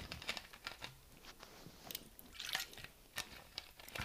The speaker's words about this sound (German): Kleinen Schluck Wasser genommen. Ein Sip Wasser.